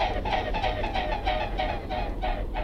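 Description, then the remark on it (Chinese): A mute swan gives a rapid series of hoarse, raspy calls, about ten rough bursts in quick rhythm at a steady, moderate loudness, with no talking. “不过它的叫声呢，听说也不怎么好听啦，很嘶哑的声音哦。”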